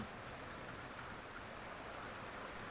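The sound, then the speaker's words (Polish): Steady patter of raindrops falling on a quiet evening in the town of Gliwice, a dense, even hiss of droplets spread across the whole clip at moderate, constant level with no voices. “Słyszę własne kroki i krople.”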